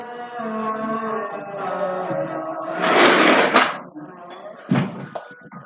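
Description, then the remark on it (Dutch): A window slides shut with a brief rushing scrape, followed moments later by a sharp thump as it closes, while a sustained melodic chanting voice, the Islamic call to prayer (adhan), carries on in the background, in a foreign country. “doe even de raam dicht, want ik ben in een ander land en hier hoor je de Adam.”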